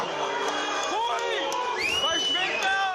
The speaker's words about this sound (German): Ja, man hörte auch ganz gut rechtsradikale Pfeifen und äh, Schmähungen rufen. Die haben damals diese Veranstaltung schon gestört.